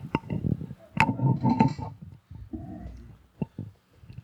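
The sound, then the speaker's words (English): A microphone is handled and adjusted, with irregular thumps, rubbing and a few sharp clicks over about four seconds, and no one talking. “all right now i can sit down I'm just gonna screw with the mic real quick here”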